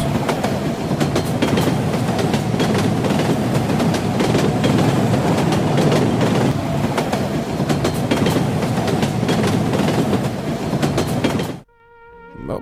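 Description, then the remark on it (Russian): A train rolls steadily along the rails with a dense, continuous rumble and repeated clickety-clack beats from the wheels, loud throughout, before cutting off abruptly near the end. “Вот едешь на поезде, все такое”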